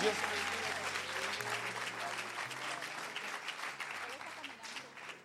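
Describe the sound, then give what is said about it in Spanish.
A large church audience claps loudly and steadily in a dense wash of applause for Jesus, with sustained musical tones underneath and some voices mixed in. “En el nombre de Jesús, la iglesia dice, vamos a dar un aplauso fuerte a Jesús.”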